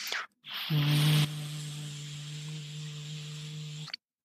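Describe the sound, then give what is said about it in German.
A person imitates with their voice a jet airplane, not a propeller plane, flying over: a loud hissing roar over a steady low hum, swelling briefly at first, then holding evenly for about three seconds before cutting off. “hier fliegt wieder ein Flugzeug und das ist bei mir im Ohr so laut”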